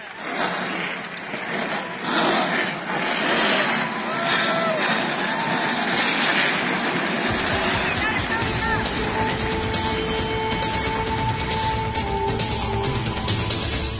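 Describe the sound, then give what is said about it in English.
Loud, noisy roar that thickens about halfway through as race car engines fire up, then a sustained, droning rev of several engines running together. “Drivers, start your engines.”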